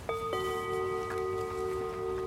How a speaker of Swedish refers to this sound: då har vi lagt in en fiffig gonggong för att markera mitten på avsnittet. Så när gonggongen ljuder, då har det blivit dags att vända om och gå tillbaks. En vändong helt enkelt. Och våran vändong den låter så här.